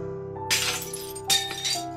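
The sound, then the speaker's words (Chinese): A coffee cup shatters in a shared dormitory in a bright, crashing burst, followed a moment later by a second sharp smash and scattered tinkling shards, all over a steady background of soft sustained tones. “那晚，暮云打碎了一只咖啡杯，却得到一个女朋友。”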